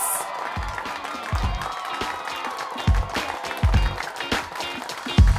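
A crowd applauds steadily, a dense wash of clapping with some scattered cheers, lively and close, with a few heavier thumps mixed in beneath the continuous clapping.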